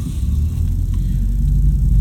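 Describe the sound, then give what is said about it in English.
A car drives slowly out of a parking lot, heading back down to the office on Tuesday, May 25, 2021, heard from inside the cabin as a steady low engine rumble with road noise, and a few faint clicks partway through. No one speaks. “Driving out of the parking lot, heading back down to the office.”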